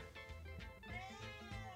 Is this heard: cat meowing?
yes